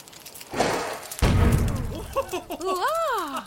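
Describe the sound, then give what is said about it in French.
Saltpetre flares up on a cooking fire: a short hiss, then a loud whooshing burst that rumbles and fades. Afterwards a voice cries out in surprise. “Une légende raconte qu'on doit cette invention à un cuisinier qui aurait versé sans le vouloir du salpêtre sur son feu de cuisson.”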